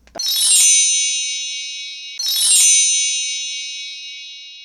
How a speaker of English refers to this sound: When y'all hear those bells, y'all should know what time it is. It's time for our Becoming Who segment.